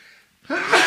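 A single sharp sneeze bursts out loud after a brief quiet moment, a sudden explosive puff of breath with no talking around it.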